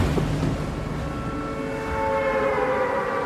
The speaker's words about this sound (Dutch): Als je nu met een spelletje begint, dan word je in een, een, een groene omgeving gedropt met een hele hoop eh, andere spelers om je heen, die allemaal maar tegen dingen aan het slaan zijn. Dat duurt een paar seconden en dan hoor je een soort toeter.